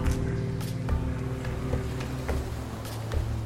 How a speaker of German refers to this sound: Die Motorgeräusche werden leiser. Und die Rotoren hören auf, sich zu drehen.